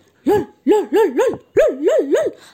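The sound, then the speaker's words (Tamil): A human voice imitates a puppy barking, giving six short, high yips in two quick bursts of three, clear with no other sounds, as a puppy in a told story barks to wake a sleeping girl. “அப்படின்னு குறைச்சி எழுப்ப பார்த்துச்சான் அப்பையும் அவன் நல்லா தூங்கிக்கிட்டு இருந்தாளா எந்திரிக்கவே இல்லையா ஆனால் நாய்க்குட்டி குறைக்கிற சத்தம் தமிழ் செல்வியோட அண்ணனோட காதில் விழுந்ததான்”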